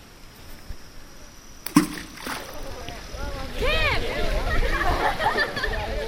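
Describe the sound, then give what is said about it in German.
Stones are thrown by hand into the water of Knox Gorge in Karijini National Park, Western Australia, one after another: a sharp splash, a second softer one, then a cluster of ringing, echoing plops and sloshes that linger. “Oder ich stelle mir vor, ich sitze in Westaustralien, in der Knox Gorge im Carigini Nationalpark und werfe Steine ins Wasser, nehme mich dabei auf und genieße die Stille.”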